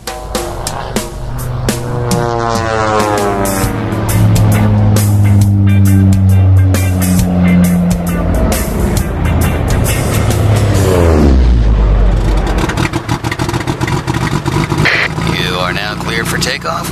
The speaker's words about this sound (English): Whoa, kill the motor, dude.